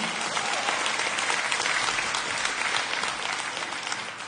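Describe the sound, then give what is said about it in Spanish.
An audience applauds together, a dense, steady wash of clapping from many hands that holds for several seconds and fades slightly at the end, with no clear voices over it. “Bueno, si va a aplaudir.”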